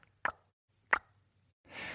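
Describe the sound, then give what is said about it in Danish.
Two crisp tongue clicks, sharp and hollow, spaced under a second apart, followed by a short soft breathy hiss. No one speaks. “Det er lyden af en, der klikker med tungen.”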